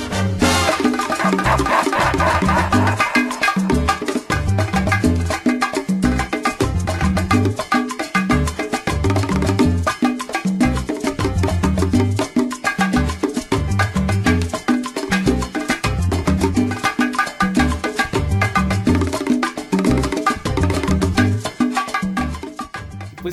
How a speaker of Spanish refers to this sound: Y entonces arranca el duelo de bongo, que en esta canción suena algo así.